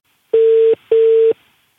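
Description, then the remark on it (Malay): A telephone line tone plays alone as a call is placed: two short, steady electronic beeps of equal length with a brief pause between, loud, then silence. “Jom kita telefon.”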